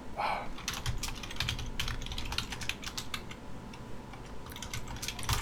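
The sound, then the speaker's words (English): Rapid keyboard typing, a steady patter of many quick key clicks, continuing for several seconds with no voices over it. “That's a really long one to have to type in five seconds.”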